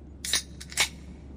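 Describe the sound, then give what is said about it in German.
A few short, bright glassy clinks and rattles, like a bottle being handled and opened, with three quick hits spread over a second against a low background hum and no talking. “wir machen nochmal einen auf, oder?”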